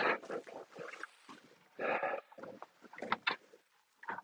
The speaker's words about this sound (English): Man, these pigs looking amazingly good. I am just just amazed. They not only do they not have any heat, they're out in I mean they have some wind protection, but they're basically in a they have a roof over their heads and some walls